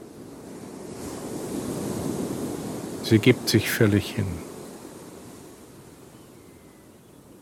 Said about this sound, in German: Der natürliche Rhythmus des Auf und Ab des Ozeans und ihr Atem werden eins.